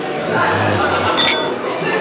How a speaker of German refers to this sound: Ja, erstmal anstoßen, oder?